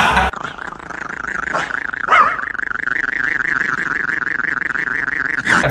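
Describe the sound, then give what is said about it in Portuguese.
A dog growls continuously for several seconds, a loud, rattling drone that throbs steadily like an idling diesel engine, with a couple of brief sharper bursts and no talking. “Você já viu um cachorro movido a diesel?”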